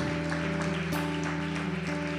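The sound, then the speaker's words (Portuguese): An audience claps steadily throughout in praise of Jesus during a church worship, the dense patter of many hands spread evenly, with sustained keyboard chords humming underneath. “Todo poder, majestade, domínio são para ti, Senhor, essas palmas.”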